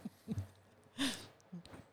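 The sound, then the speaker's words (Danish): A man's soft, raspy snore picked up through a microphone, one main rumbling breath in the middle with faint low snuffles before and after, with no talking. “Ej, han, man kan høre, han snorker igennem den her mikrofon.”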